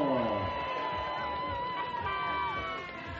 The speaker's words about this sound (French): Le bouclier à la lauréate du jour, je vais vous demander d'applaudir à nouveau bien fort, Jasmine Taylor